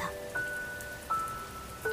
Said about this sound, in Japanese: 雨の音が聞こえてきた桜雨え桜が咲く頃に降る雨のこと静かな雨の音だったこの雨の音を忘れたくないと思った